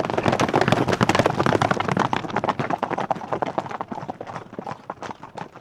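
Many cavalry horses in tight formations gallop in a dense, fast clatter of hoofbeats, loud and continuous at first, then thinning slightly toward the end. No one speaks.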